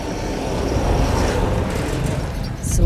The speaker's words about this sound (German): jetzt ist hier gerade ein Trecker vorbeigefahren. Ich hoffe, es war nicht zu laut.